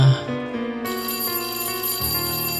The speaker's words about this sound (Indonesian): bel berbunyi.